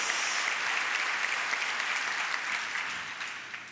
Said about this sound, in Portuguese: Dá uma salva de palmas, dá outro glória a Deus, dá uma aleluia em nome de Jesus.